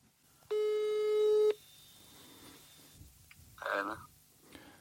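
A telephone ringing tone as a police officer from Norrlandspolisen calls, before the call connects: one loud, steady electronic beep lasting about a second, then quiet line hiss with a short muffled rustle near the end.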